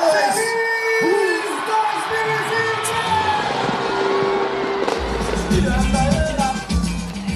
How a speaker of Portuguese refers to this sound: Ivete Sangalo fez a contagem regressiva em Salvador. Foram dois pontos de fogos, um deles atrás de uma roda gigante.